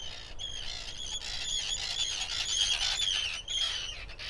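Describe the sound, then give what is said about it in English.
Harsh, grating calls of Arctic terns, shorebirds in a colony in Iceland, overlap continuously as several birds fly around squawking in a steady noisy chorus with no speech. “basically the Arctic terns are very, very territorial”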